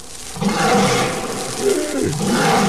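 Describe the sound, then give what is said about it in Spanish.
A tiger lets out a deep, rumbling roar that swells twice over a few seconds, loud, with no other sounds around it. “Dios santo, es el tigre.”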